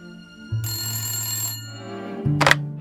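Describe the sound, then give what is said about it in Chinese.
A telephone rings with one sustained, bright metallic ring lasting well over a second. A short, sharp clack follows near the end, and no one speaks. “拉莫纳刑警的电话来了。”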